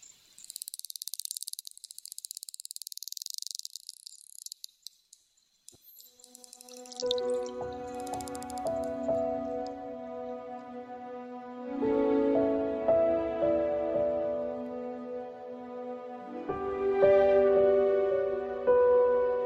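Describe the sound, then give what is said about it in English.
Bottlenose dolphins in the Bahamas, recorded by Wild Quest, chirp with shrill, high-pitched whistles and crackling clicks for about six seconds. Then a steady, mellow instrumental melody of sustained tones takes over. “These bottlenose dolphins were recorded in the Bahamas by Wild Quest.”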